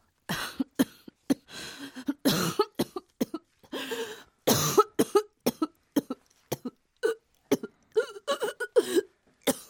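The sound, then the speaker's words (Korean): A sick woman, a wife who has been coughing like this for more than a month, coughs over and over, harsh, hacking bursts coming in irregular clusters with brief pauses between, fairly loud, with no talking throughout. “이렇게 기침을 한 지도 벌써 달포가 넘은 상황.”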